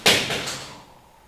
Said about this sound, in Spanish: No se asusten. Solo estamos haciendo pruebas para ver cómo suena el cohete antes de lanzarlo.